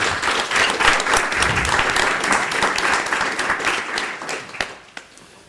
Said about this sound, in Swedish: En sån här härlig välkomnande applåd.